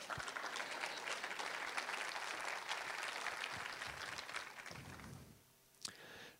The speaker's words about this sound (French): Donc, ça aussi, merci Seigneur pour cette bénédiction. Vous avez le droit d'applaudir, dire Amen de temps en temps.